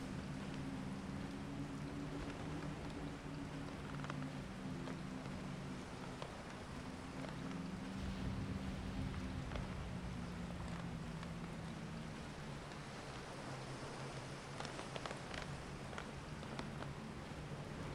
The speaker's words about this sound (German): Der Klang der Brandung und das Heulen des Windes bilden eine beruhigende Symphonie, die dich sanft umschmeichelt und in einen Zustand tiefer Entspannung versetzt.